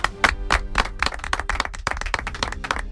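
A small group applauds in a studio, starting with a few separate sharp claps that quickly thicken into a steady, moderately loud patter of hand claps lasting the whole stretch.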